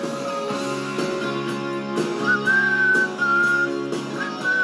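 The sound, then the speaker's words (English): A person whistles a steady, wavering melody over a band's loud rock music during a guitar break, the whistle clear above the full band; no one speaks. “You my sorry ass whistle.”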